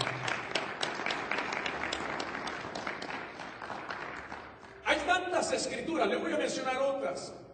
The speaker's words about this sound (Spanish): ¿Cuántos pueden dar un aplauso a la palabra del Señor?